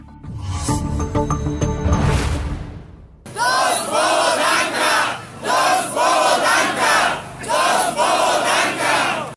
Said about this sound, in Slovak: Takto skandovali ľudia včera večer na proteste pred parlamentom. Prišli Andrejovi Dankovi symbolicky odobrať titul doktora práv, ktorý získal opísaním veľkej časti svojej práce z niekoľkých učebníc.